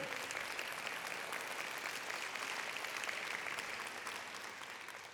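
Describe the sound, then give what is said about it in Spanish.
An audience applauding the Lord hard and steadily, a dense wash of many hands clapping at full volume that holds for the whole stretch and eases slightly at the end. “Si le va a aplaudir al Señor, dele duro.”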